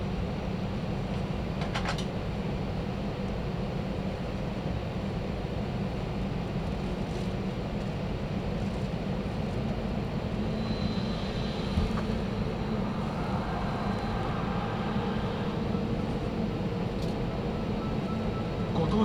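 A steady, enveloping engine drone fills the cabin of ANA3864/StarFlyer SFJ64 flying from Fukuoka Airport to Chubu Centrair International Airport, heavy in the low end with a constant airy hiss above it, holding an even loudness throughout with no talking.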